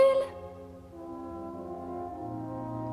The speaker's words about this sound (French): le klaxon n'est pas un jeu